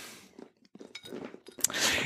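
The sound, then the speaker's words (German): Glasses clink together in a toast: a few scattered light knocks and rustles, then a sharp bright clink near the end with a ringing shimmer after it. No one speaks. “Prost, Alter. Zum Wohl.”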